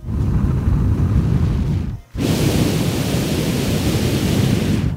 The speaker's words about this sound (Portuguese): Tá sentindo esse vento? Sente esse vento dentro do seu peito agora.